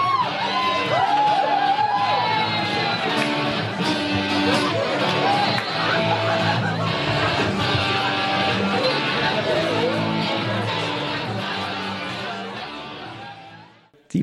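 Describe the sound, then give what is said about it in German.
A loud festival crowd cheers and whoops continuously, with many voices shouting over a dense roar and possible band sounds underneath, before the noise fades out near the end. “Und jetzt hören wir, wie versprochen, in die Party rein mit der ….”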